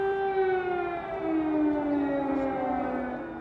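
A steady, wailing air raid siren sounds across Kyiv, Ukraine, as the Russian attack on Ukraine begins, its tone sliding slowly downward, sustained and loud with a broad, echoing spread and no voices.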